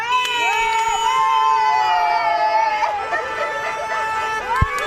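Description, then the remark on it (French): A dense crowd cheers and shouts continuously in the streets of Blois, France, many voices overlapping in high, rising whoops and yells, steady and loud throughout with a brief sharp burst near the end. “Qui espère aussi de nouveau entendre ce genre d'ambiance dimanche dans les rues de Blois et dans tout le pays.”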